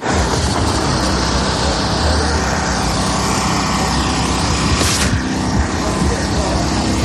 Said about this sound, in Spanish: Estamos en pleno Manhattan, a orillas del río Hudson, y esta es una ciudad que te sorprende en cada esquina. Es una ciudad absolutamente loca, como siempre, pero más. Caótica, como siempre, con un tráfico imposible.